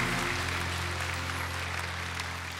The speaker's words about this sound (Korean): 존귀한 주의 자녀 됐으니 사랑하며 우리 귀한 우리 부모님에게 뜨거운 박수로 축복하겠습니다.